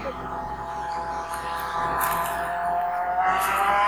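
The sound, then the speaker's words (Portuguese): A car engine revs and passes by, a steady buzzing drone whose pitch climbs gradually toward the end, holding at a fairly constant, moderate loudness throughout. “Eu ouvi o Vin Diesel passando aí no fundo.”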